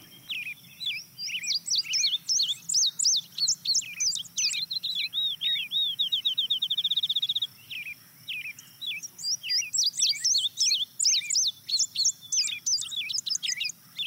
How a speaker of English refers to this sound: the next bird you're going to hear is an indigo bunting.